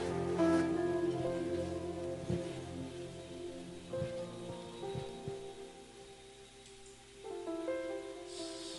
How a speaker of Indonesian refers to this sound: Haleluya, beri tepuk tangan bagi Tuhan Yesus.